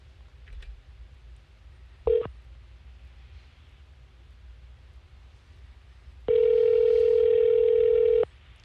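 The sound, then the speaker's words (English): Phone ringback tone on an outgoing call to Governor John Bell Edwards' office: a brief clipped ring, then after a pause a steady, loud two-second ring, over faint low background hum with no talking. “One ringy dingy.”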